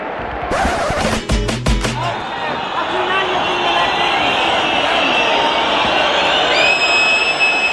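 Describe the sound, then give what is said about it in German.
A large football stadium crowd at La Rosaleda roars steadily while shrill whistles of disapproval from unhappy FC Malaga home fans rise above the din in the closing seconds, at full time of a 1-2 home defeat to Albacete, with a few sharp thuds early on. “Man hört es an den Pfiffen.”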